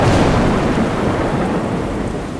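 A thunderstorm: a deep, loud rumble of thunder rolls over steady heavy rain, the roar staying dense and sustained throughout with no voices.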